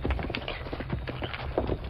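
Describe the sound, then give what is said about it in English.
A single horse and rider gallop hard toward town, the hooves pounding in a rapid, steady drumming rhythm that stays fairly loud throughout, with no voices over it. “Golly, look at that horse run. Really fast, all right.”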